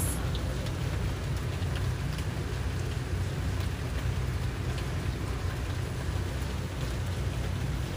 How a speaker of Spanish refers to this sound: En estos minutos te invito a que enfoques tu atención en la lluvia. Y suavemente pasa de enfocarte en tu respiración a enfocarte en el sonido de la lluvia.